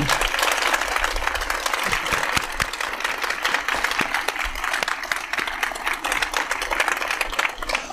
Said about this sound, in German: Und heute ist der letzte Tag und wir haben, wie ich finde, einen ganz, ganz großartigen Abschluss mit unserem Gast Paul Maar, dem Autor des Sams, der erst einmal mit einem großen Applaus willkommen geheißen werden sollte.